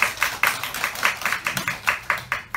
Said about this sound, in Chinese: 所以呢，请大家呢，等一下福利多给我一些掌声跟笑声，谢谢。